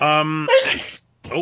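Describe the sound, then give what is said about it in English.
A single sharp, breathy sneeze bursts out right after a short voiced sound, followed by a brief pause before a person starts talking again. “bless you.”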